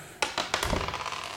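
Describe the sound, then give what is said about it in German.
Dice clatter across a hard tabletop in a quick burst of sharp clicks and rattles, tumbling several times before settling, with no voices over them. “Fangen wir mal an zu würfeln.”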